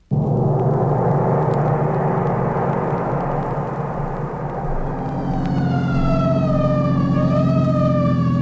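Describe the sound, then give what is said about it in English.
A loud vehicle engine rumbles steadily, then a wailing emergency siren rises in pitch and climbs over the engine noise during the second half, in the Arch Oboler radio drama The Dark, as the vehicle answers an alarm on Pine Street. “So why the siren?”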